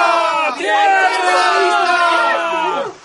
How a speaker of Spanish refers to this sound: Una mañana vimos una nube en el horizonte. Un mismo grito salió de las mil gargantas. ¡Tierra!